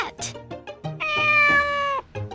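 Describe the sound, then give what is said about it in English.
A black cat named Sandy lets out one long, steady meow lasting about a second, loud, with brief murmuring vocal sounds just before and after it. “Look at Sandy, the black cat.”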